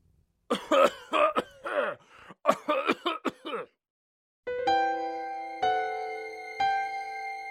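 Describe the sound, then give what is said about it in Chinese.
A run of harsh, throaty coughs and throat clearing in a bathhouse, in uneven bursts, followed by a pause and then three ringing, sustained musical notes struck about a second apart. “澡堂里的咳嗽声。”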